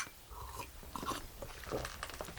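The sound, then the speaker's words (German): Wet slurping noises as someone sips coffee, a few short noisy bursts over about two seconds, with faint clinking and no talking. “Mit amüsiertem Gesichtsausdruck hörte er zu, spielte dabei Gedanken verloren mit seinem Siegelring und schlürfte seinen Kaffee.”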